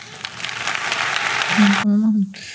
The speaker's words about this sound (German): Aber den, den Applaus finde ich nicht schlecht.